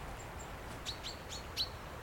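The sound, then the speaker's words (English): A little party of small birds, mostly blue tits and great tits, in riverside trees gives a scattering of thin, high calls, several brief chirps spaced irregularly, fairly faint over a low background rumble with no talking. “A little party of small birds, mostly tits, and there's some nests.”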